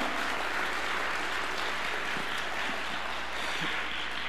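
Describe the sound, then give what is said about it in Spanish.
An audience applauding God together, a steady, dense wash of many hands clapping at once, loud and sustained for several seconds with no talking over it. “Si estás feliz, ¿por qué un fuerte aplauso a Dios?”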